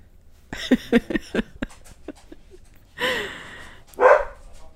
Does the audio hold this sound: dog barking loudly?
yes